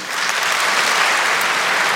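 An audience claps steadily at the Latgalian culture annual awards, a dense, crackling wash of applause that holds at an even, fairly loud level throughout, with no voices rising above it.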